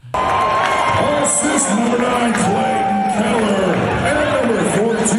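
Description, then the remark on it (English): A hockey fan yells and screams at Coyotes fans over a dense, roaring arena crowd, with cheering and shouting voices filling the whole stretch at a steady, loud level. “He's sitting there screaming at Coyote fans.”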